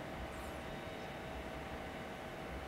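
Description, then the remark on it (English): A steady, high-pitched whir of a small rotary tool like a Dremel runs continuously with a constant hiss and no change in speed. No one speaks. “It sounds like out. a Dremel being used.”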